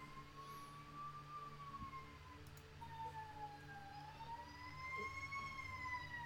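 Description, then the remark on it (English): A fire truck siren wails steadily outside, its tone sweeping slowly up and down over a low engine rumble, growing a little louder toward the end as it passes. “That's a fire truck now.”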